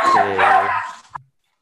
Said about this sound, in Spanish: Uy. No pisen al perro. ¿Qué, pasó? ¿Le pisaron la cola al perro? Y bueno. así casa son, así. es, pues el perrito ladra, ¿no? es el este, calor del hogar.